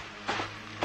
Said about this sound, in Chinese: 我清楚地感觉到，这回是奔我们房间来了。我惊恐之余，忽然觉得那是一个高跟鞋的声音。